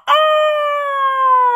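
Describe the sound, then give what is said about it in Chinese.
A rooster crows once in a single loud, drawn-out call that holds a steady, slightly falling pitch for over a second before cutting off. No other sounds accompany it. “公鸡不管别人困不困，只要自己醒了，就不许大家再睡。”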